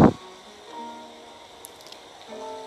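A soft, steady hiss of rain runs through the whole stretch, continuous and fairly quiet, with faint sustained tones humming underneath and no one speaking.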